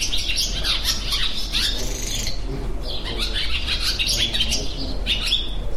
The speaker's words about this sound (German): Das ist, ein Schwalben. Genau, ein kleines Schwalbenjung ist das. Das aus lauter Kraft singt. Ja, und etwas schimpft, weil die Besucher so nah rangekommen sind.